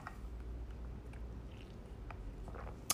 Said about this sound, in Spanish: Ay, disculpen. Aquí me estoy tomando un traguito, por cierto, de mi famosísimo frappuccino del Organic Café.